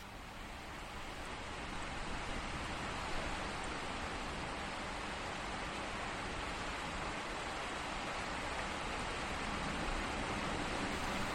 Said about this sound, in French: Oui, nous avons reçu la pluie. Cet incroyable soudain réel.